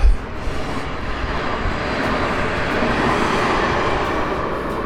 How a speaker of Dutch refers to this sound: Nou, zoals je hoort raast er een trein voorbij. Het uh, eh, FC Twente stadion is dus, eh, pal naast een eh, treinstation gevestigd. Enschede Kennispark.